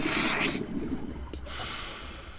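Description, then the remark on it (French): A harsh, breathy hiss from a pump pushing against a blocked water tank aboard a sailboat, coming in two bursts with a short pause between them, with a low rumble underneath. “Yes Écoute, écoute C'est la cuve qui est bouchée”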